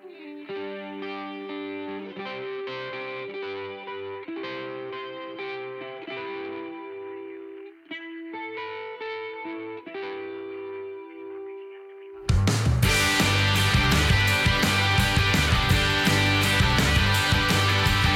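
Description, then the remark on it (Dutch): A recorded song plays, opening with a gentle, effected guitar-like passage of sustained tones for about twelve seconds before the full band crashes in loud and distorted with drums. “En deze song staat bij hem bovenaan, dus we gaan hem gewoon draaien.”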